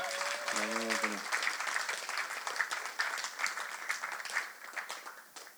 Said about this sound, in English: It's all right to clap. That's totally fine.